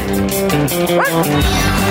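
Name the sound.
dogs barking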